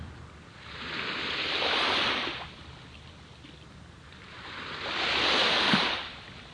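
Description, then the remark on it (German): Two slow waves swell and break on the shore, each a broad hiss of surf that rises, peaks and washes back, with a soft continuous roar between them and no voices. “Mit jeder Welle immer mehr Schwere.”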